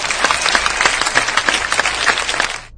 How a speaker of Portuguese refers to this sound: Palmas